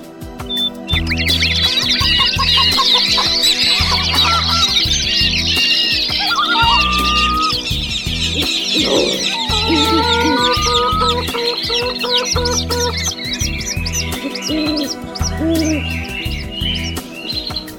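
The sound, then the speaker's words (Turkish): A dense flock of birds chirps and clucks all at once, a busy overlapping chorus of calls and trills that stays loud for the whole stretch, with a low rhythmic thumping underneath. “Bütün kuşlar toplanıp file hücum etmişler.”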